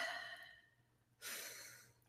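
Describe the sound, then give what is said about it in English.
A deep inhale through the nose, a short pause, then a long airy breath out through the mouth, fairly soft, with no talking. “In through the nose and out through the mouth stimulates the relaxation response.”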